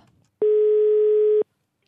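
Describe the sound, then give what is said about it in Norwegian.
A single ringback tone on an outgoing phone call to a pet shop: a steady, loud, buzzing tone lasting about a second, then silence, with no voices present. “Sånn, men for å ikke gå eh, på bomtur, så uh, ringte jeg til dyrebutikken uh, for å høre om de har produktet pattesalve.”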